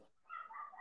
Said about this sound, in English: Maybe you'll see one player sort of go off like Clifford or Hamler, but um, yeah, apologize for my dog barking in the background.